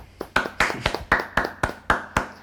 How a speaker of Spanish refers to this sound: Un aplauso.